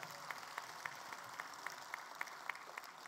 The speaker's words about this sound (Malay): Ini semua sahabat-sahabat kita yang kita pernah memperjuangkan suara mereka dan hari ini mereka hadir bersama kita. Kita bagi tepukan gemuruh kepada mereka.